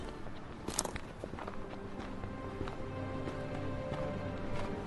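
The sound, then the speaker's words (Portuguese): Footsteps walk along a street at a steady pace, each step a soft, clear tap over a constant low hum of background noise. No one speaks. “Caminho pelas ruas desta cidade que estou aprendendo a odiar”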